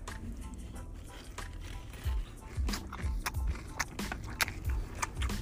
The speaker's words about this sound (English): Ow, it's hot. It's even. It's piping. I'm licking my fingers currently. Ah. listen, listen to that crunch.